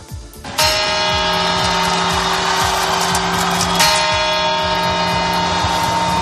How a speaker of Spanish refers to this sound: el sonido de las campanadas de la Puerta del Sol desde un reloj cuya imagen eh, todos tenemos guardada en la memoria infantil.